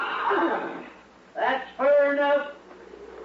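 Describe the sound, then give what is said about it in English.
A horse whinnies in two close bursts, a short shaky cry followed by a longer, quavering neigh, heard fairly loud after a brief rush of breathy noise. “Get back onto that horse and get out of here.”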